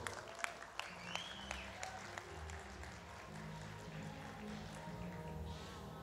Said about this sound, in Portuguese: Uma salva de palmas para ela, por favor.